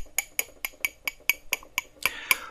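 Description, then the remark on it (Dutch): A small steel spoon, just taken out of coffee stirred with milk, taps a ceramic coffee cup rim about ten times in a steady rhythm to knock off drops. Each bright clink rings briefly and the pitch rises with each tap; the last couple of taps are louder and fuller, with no talking. “Aan het einde haal ik het lepeltje uit de koffie en klop de druppeltjes eraf door met het lepeltje op de rand van de tas te kloppen.”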